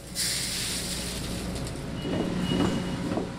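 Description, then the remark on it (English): Green coffee beans from burlap bags torn open by workers pour steadily into a silo at the Swiss Water decaffeination plant south of Vancouver, a continuous dense rattling hiss over a low mechanical rumble. It holds fairly loud throughout, with no voices. “Workers are tearing open burlap bags of green coffee beans and dumping them into a silo.”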